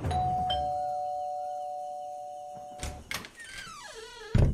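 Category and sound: household object, doorbell ringing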